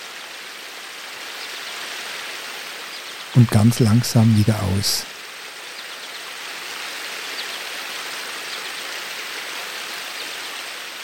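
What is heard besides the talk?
babbling brook flowing water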